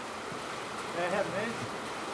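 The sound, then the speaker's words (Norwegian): Heavy rain from a brief but intense shower pours down in a steady, dense, continuous hiss, heard from under a roof at a sheep farm in Norway, with a brief faint murmur of a voice rising slightly in the middle. “Det ble en liten, men intens byge, og vi skal tilbake i bondens hage.”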